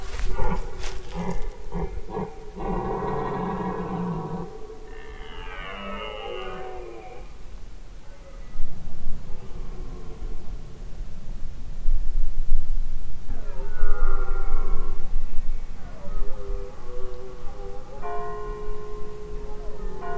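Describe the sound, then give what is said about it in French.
At 11 p.m. in a forest, a neighbouring church bell tolls at the start, then several deep, drawn-out stag bellows during the rut ring out one after another, fairly loud, over a steady low rumble. “Le clocher voisin couvre un temps les joutes orales des cerfs.”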